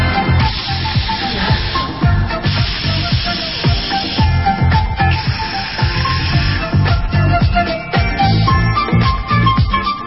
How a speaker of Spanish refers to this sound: Ahí va el hielo seco.